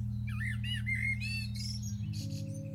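Several birds chirp and warble in quick, varied calls over a steady low hum on the vacant Notre Dame university campus, with no voices present.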